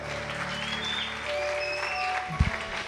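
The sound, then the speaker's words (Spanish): An audience claps steadily and cheers throughout, a dense wash of applause with high whoops and whistle-like calls rising over it, fairly loud and sustained with a brief thump near the end, giving glory to God at a morning church service. “¿Por qué no le da la gloria a Dios bien fuerte que esta mañana?”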